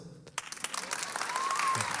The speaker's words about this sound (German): So, Applaus ja.